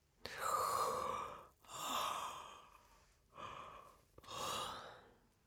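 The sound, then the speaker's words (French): Slow, deliberate breathing as a conscious breathing exercise: two cycles of inhaling through the nose and exhaling through the mouth, each breath long and airy with brief pauses between, no talking. “J'inspire par le nez et j'expire par la bouche.”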